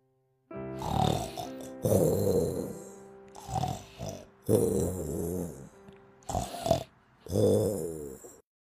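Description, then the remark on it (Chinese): A voice imitates the loud snoring of the Big Mouse character in a children's story about a big mouse and a little mouse: six rasping, drawn-out snores in a steady rhythm, each a rough, buzzing breath with brief pauses between, and no other talk. “哦，大老鼠，大老鼠，你在打呼噜！”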